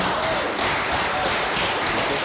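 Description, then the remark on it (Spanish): Audience applause for the Holy Spirit during a church sermon: a dense, steady wash of many hands clapping at once, loud and continuous for a couple of seconds with no voices standing out. “Denle un aplauso al Espíritu Santo.”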